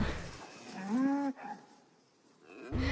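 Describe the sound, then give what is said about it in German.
A single long, low moo from a Wagyu cow, rising and holding with strong harmonics, against faint outdoor background noise, with a brief second low call at the very end. “Da sind alle glücklich mit, die Waggis und ich auch.”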